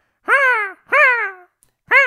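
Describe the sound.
A voice imitates seagull calls, the gulls first heard on arriving in the archipelago: three loud, nasal, drawn-out cries with short pauses between them. The last cry is cut off at the end.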